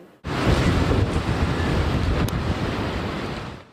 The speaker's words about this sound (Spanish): El fuerte rugido de los vientos de Fiona invadían la región este del país. El huracán impactó en la madrugada a la República Dominicana en la zona de Punta Cana, provocando temor y devastación.